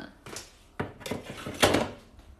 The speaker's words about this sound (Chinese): 你在洗碗啊？洗洗了碗才能有光明的未来。你不洗碗啊？你这一辈子没得吃。